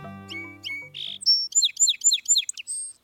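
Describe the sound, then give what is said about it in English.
A bird sings a clear song: a few soft opening notes followed by a rapid series of five bright, repeated whistled phrases, ending on a sustained high note, with no voices. “Many bird species have a distinctive song.”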